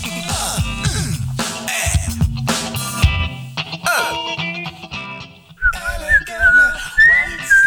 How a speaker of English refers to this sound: I'm going to be whistling elegantly wasted.